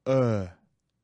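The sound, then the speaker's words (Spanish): A single short, low "uh" grunt, a neutral schwa vowel voiced alone for about half a second and then cut off, imitating a primitive human making a first utterance. “algo que en el alfabeto internacional se llama schwa o, que es el único sonido que tiene nombre.”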